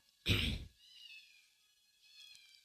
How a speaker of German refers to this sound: Meine Katze rast wieder richtig aus. Ja, hallo, kleine Katze.